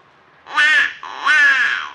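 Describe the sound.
A duck call blown to imitate the mating call of a mallard hen: two loud, nasal, reedy quacks, the second drawn out longer than the first, with no talking.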